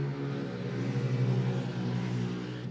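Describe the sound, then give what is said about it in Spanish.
A motorcycle engine drones past outside, its buzzing hum swelling to a peak midway and then easing off slightly as it moves on, with no voices present. “Ahí va la moto.”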